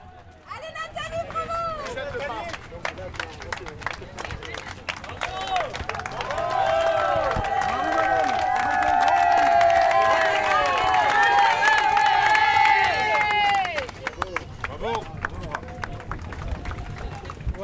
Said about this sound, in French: il n'y a plus de silence dans le stade. Ça crie, ça chante, ça crie, ça applaudit surtout.